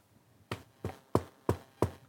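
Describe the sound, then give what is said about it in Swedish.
Five soft, evenly spaced knocks on a door, quiet, with short pauses between each rap and no voices. “en svag diskret knackning på dörren.”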